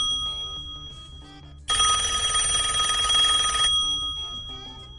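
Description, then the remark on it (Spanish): A loud telephone bell rings in one continuous burst of about two seconds, bright and metallic, cutting in sharply over quieter background sounds that continue after it stops. “Cuidado, teléfono, Franky teléfono.”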